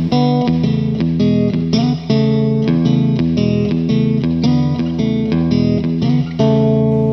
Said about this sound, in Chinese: 五秒钟音乐之后马上回来。